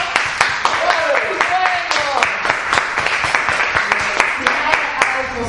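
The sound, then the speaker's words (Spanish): An audience applauds steadily, a dense patter of many hands clapping at a fairly loud, even level, with a few voices calling out faintly underneath. “Pero vamos a dar un aplauso.”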